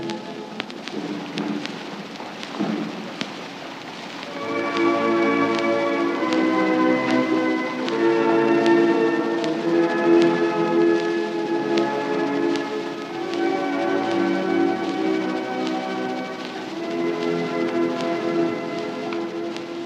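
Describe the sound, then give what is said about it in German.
A slow funeral chorale played outdoors by a band in a funeral procession with a hearse and mounted police on Wilhelmstraße, recorded from a balcony, swells in after a few seconds of noisy crackle, its sustained chords fairly loud and steady against a rough, hissing background. “Sie hören jetzt sicher lauten Trauerchoral.”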